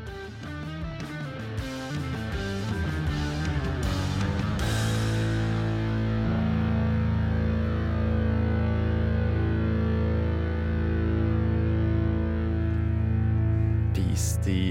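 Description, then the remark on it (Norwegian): A loud heavy metal song in a 70s style, with distorted guitar chords. Choppy, driving riffing at the start gives way to long, sustained low power chords that ring out. “Et av de, de, klareste eksemplene fra albumet mm, hva gjelder eh, 70-talls eh, heavy metal, er kanskje den låta jeg skal høre nå”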